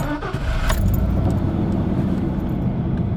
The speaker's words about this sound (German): Also komm, wir gehen, wir starten mal den Motor und, und fahren da mal richtig